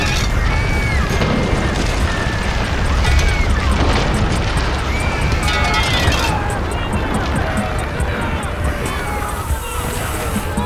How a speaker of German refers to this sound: Der Boden in der Halle hob sich. Die folgende Druckwelle ließ das Glas vor ihm in tausende Splitter bersten, bevor sie den Kurier erreichte und ihn wegfegte.